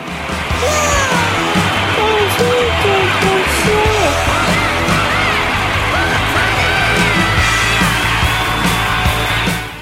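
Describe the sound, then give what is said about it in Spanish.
An applause and cheering sound effect: a loud, steady roar of crowd applause and cheering, with scattered high whoops and yells rising over dense clapping for about ten seconds before cutting off abruptly. “¡Cortala con los aplausos, José! ¡Cortala!”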